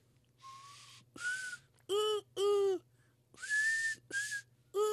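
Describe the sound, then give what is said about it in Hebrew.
A person imitates a seagull's cry with a series of loud, shrill whistled calls, some steady and high, others harsh and strained, in about seven short bursts with brief pauses between them. “מה שאתה עושה עכשיו זה השחף כאילו?”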